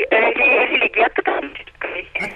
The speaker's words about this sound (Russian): Вас плохо слышно. Еще раз повторить. срывается звонок. Вы по мобильному звоните, да?